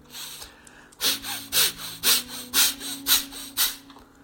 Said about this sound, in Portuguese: É a respiração que vamos fazer hoje, uma respiração muito rápida, acelerada, forte. Vamos fazer juntos. Fecha seus olhos, cerra os olhos. A respiração é assim, forte, algo assim